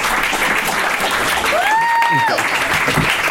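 A crowd claps steadily and loudly throughout, with cheering in the mix and a sharp, sliding whistle rising above the applause partway through.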